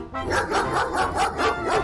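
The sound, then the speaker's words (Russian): A dog barks in a quick, steady series of about five or six sharp, yappy barks, fairly loud, with no one talking; the dog is chasing a monkey along a street. “И вдруг, а откуда ни возьмись, выскочила собака.”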